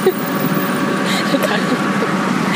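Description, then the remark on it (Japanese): A tuk-tuk's engine drones loudly and steadily as it speeds toward Mo Chit station to catch a bus, mixed with constant wind and road rush, while muffled voices talk underneath the noise. “今トゥクトゥクに乗ってるんですけどめっちゃ怖いんですけど今あの駅に駅っていうかなんか、えっと、モルチット駅あのバスに乗るのに向かってるんですけどもうトゥクトゥクの飛ばし方が怖すぎて”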